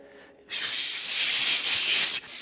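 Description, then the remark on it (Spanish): A voice imitates the fizzing of an Alka-Seltzer tablet dropped in a small glass of water: a sustained, bright hissing shhh lasting under two seconds, fairly loud, with a brief dip midway before cutting off. “Que usted la eche en un vasito de agua y ¿qué hace el alcacelser?”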